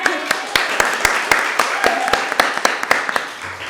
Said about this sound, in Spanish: Un aplauso para